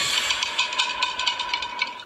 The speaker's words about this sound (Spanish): ah, la lavadora.